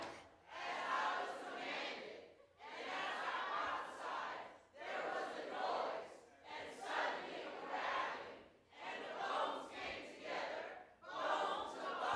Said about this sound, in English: Now, y'all just shouting because you know that's what I said you're supposed to do, but you don't know what you're shouting for.